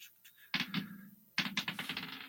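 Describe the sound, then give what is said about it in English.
A twenty-sided die clatters across a hard surface in two bursts of rattling bounces, fairly loud, each tumble settling quickly with no voices. “All right, and the twenty sided dice”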